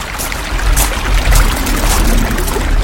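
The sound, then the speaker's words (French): Steady rushing river water flows continuously, a broad, fairly loud wash with soft splashy surges and low rumble, with no voices. “Ferme les yeux et imagine-toi marcher le long d'une rivière.”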